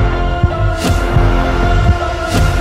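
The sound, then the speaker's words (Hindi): A frightened man's fast, heavy heartbeat pounds in low, muffled thumps as he rides a moving bus amid traffic, repeating rapidly against a steady droning hum in the background, with no voices. “राजू की धड़कने इतनी तेज थीं कि लग रहा था जैसे दिल छाती फाड़ के बाहर आ जाएगा चलती बस और ट्रैफिक की आवाजों के बीच में भी राजू को अपनी धड़कने तक सुनाई दे रही थी”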